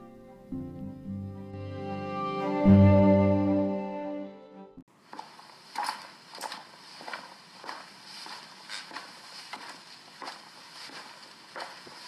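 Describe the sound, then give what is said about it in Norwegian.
A brief swelling musical tone fades out, then quick, hurried footsteps follow in a steady, brisk rhythm, moderately loud, as a parish educator hurries through the Melhus church office into the church administrator's office. No one talks. “Menighetspedagogen tar føtten fatt i kirkekontoret og haster inn på kirkevergen slash detektivens kontor.”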